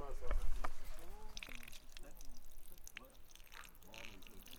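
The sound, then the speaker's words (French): A thin stream of spring water trickles and splashes steadily from a plastic pipe with occasional drips, in a bathroom made of three pieces of wood with a sheet stretched over them, the spring about 100 meters away, while a voice talks over it intermittently. “Et derrière, il y a un tuyau en plastique d'où coule un filet euh, d'eau de source.”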